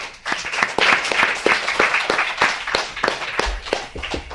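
An audience applauds steadily for a few seconds, many hands clapping in a dense, crackling wash with sharper individual claps standing out throughout.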